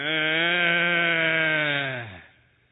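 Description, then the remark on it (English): A baby in the back of a car driving on I-35 lets out one long, uncomfortable moan, a steady, buzzy whine held for about two seconds before its pitch sags and fades. No other sounds accompany it. “I hear this moan coming from the back, like she was right here in my ear”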